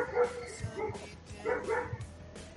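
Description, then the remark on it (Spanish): A dog barks repeatedly in short bursts in the background, with several somewhat muffled woofs spread across the moment. “Más chistoso que sí, es Sí, y se escucha de fondo el perro, pero no, no habla así.”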